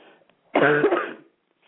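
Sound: cough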